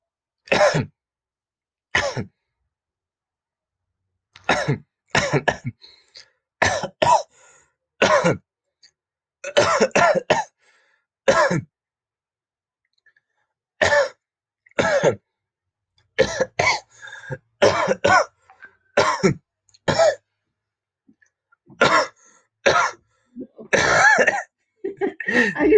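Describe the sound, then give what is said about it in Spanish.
A person coughs repeatedly in short, sharp bursts, sometimes singly and sometimes in quick clusters, with brief silent pauses between them; the coughs are fairly loud, with occasional throat clearing. “Para el primer capítulo, tosiendo durante cinco minutos.”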